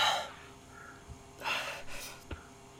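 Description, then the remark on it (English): Heavy, ragged gasping breaths from a person squeezing through a tight cave passage, fairly loud, with a few sharp inhales and exhales spread across a couple of seconds and no talking. “I can't seem to control my breathing.”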